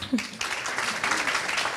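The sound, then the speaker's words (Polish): An audience at a live book-discussion event in Polish breaks into applause, a dense, steady wash of many hands clapping that swells after a brief quieter start and holds loudly to the end, with a short voice heard at the very beginning. “Bardzo nam jest miło, że możemy się zobaczyć, bo to rzadka okazja, więc brawa dla Państwa.”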